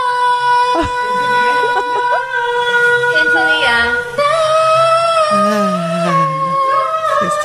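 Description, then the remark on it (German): A woman sings a pop hit noticeably off-key, her loud voice sliding and wavering between notes in long sustained phrases that run through the whole stretch without pause. “Das klingt so schief, man hätte die ganze Zeit den Wunsch,”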